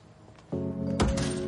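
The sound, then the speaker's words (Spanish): A glass door is kicked open: one heavy, booming thump with a brief bright rattle, heard over a steady low humming tone that starts just before it. “Luke abre una puerta de cristal de una patada.”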